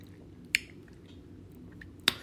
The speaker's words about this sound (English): And you know why I choose my chew my ice? I don't chew my ice because it's enjoyable.